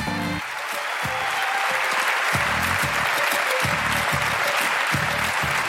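A large audience at the Montreux Comedy show applauds loudly and steadily to welcome the next performer, with bursts of cheering and whoops rising over dense, continuous clapping that fills the whole stretch.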